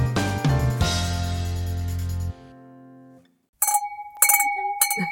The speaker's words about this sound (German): Oh, Habt ihr das gemerkt? Heute klingelt's oft zum Wohl.